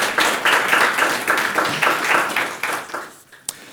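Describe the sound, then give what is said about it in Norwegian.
A TV studio audience applauds an actress and a head screenwriter, a dense patter of many hands clapping at steady strength before thinning out near the end, with one last sharp clap standing alone. “Gi dem en applaus.”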